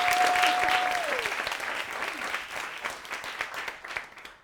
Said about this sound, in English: So please give her a round of applause.